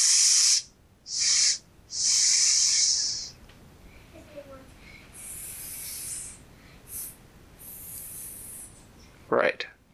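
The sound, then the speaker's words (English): A person hisses like a snake in a series of drawn-out sibilant bursts, the first three loud, then several quieter, breathier ones, ending with a short voiced sound. “And the snake said, Well, yes, but I'm not sure if you can pronounce it. And he told him his name was S-”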